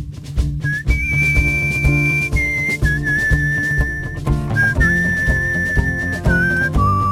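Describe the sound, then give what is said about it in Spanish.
Someone whistles a tune, holding long clear notes that step up and down in pitch, over steady instrumental backing music. “Hoy en clase de silbidos, hoy en clase de silbidos,”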